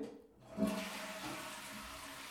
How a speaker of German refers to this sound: Nein, das tue ich nicht, wie ihr an der Spülung im Hintergrund erkennen könnt.